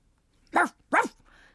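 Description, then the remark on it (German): A dog barks twice in quick succession in answer to a woman calling it, two sharp, fairly loud woofs, followed by a faint, brief trailing sound as things quiet down. “Der Hund, sein Name war offenbar Balu, bellte als Antwort.”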